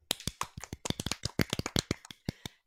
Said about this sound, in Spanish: Un aplauso.